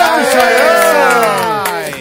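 An audience cheers loudly for a guest, with whoops and shouting voices, their pitches rising and falling, over a steady patter of clapping, and the applause fades slightly toward the end.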